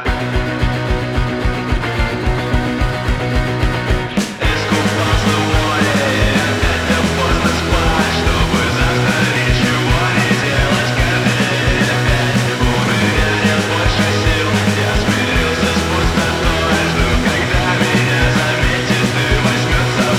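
A band's song plays loud and steady, with a stepping bass line under a dense, full arrangement; a brief break near the start leads into the main section, which carries on to the end.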